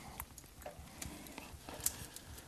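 A clock ticks steadily, its soft, even clicks coming roughly every half second with nothing else around them.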